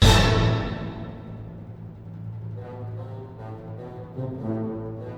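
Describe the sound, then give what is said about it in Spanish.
A loud orchestra hit sample, originally called Orchestra Hit or Orch 2, taken from the first note of the Infernal Dance of King Kashchei in Igor Stravinsky's ballet The Firebird, strikes at the start and decays quickly, leaving a sustained, brassy tonal chord that lingers with some swelling movement for several seconds. No voices are heard. “El sample en cuestión se llamó originalmente Orquestra Hit o incluso Orch 2.”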